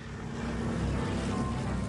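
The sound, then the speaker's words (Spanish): A continuous, heavy drone of four-engine propeller planes passing in constant succession over Berlin in the winter of 1948–49, carrying coal, fills the air. It is a steady low rumble with a throbbing hum that holds at a constant loud level throughout. “El ruido de los aviones de cuatro motores en sucesión constante es insoportable.”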